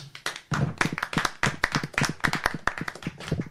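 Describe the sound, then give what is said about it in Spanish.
A crowd applauds the Instinct Gaming team, national League of Legends champions of the Claro Guardians League, many hands clapping in a dense, continuous patter of sharp slaps that holds steady and fairly loud for the whole stretch, with no voices over it. “Pues bueno, son campeones del Claro Guardians League, así que bueno, son los campeones nacionales, así que bueno, un aplauso para...”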